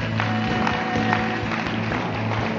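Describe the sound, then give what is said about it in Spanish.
An audience applauds in a dense, steady wash of clapping that lasts the whole moment, with a sustained low tone humming beneath it. “Dele un aplauso entonces por eso.”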